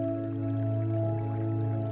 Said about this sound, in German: Mit etwas Glück können wir auch die verschiedenen Wasserspiele hören. Das Plätschern entspannt uns.